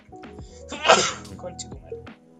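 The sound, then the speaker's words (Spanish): A single sharp sneeze bursts out, a sudden noisy blast that fades quickly, with a voice murmuring faintly before and after it. “Salud.”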